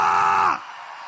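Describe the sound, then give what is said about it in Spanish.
A standing crowd of voices shouts to Jehovah together in one loud, sustained burst for about half a second, then drops abruptly to a quieter, lingering murmur of the room. “Alguien va a tener que dar un grito. Es más, ponte de pie y dale un grito a Jehová.”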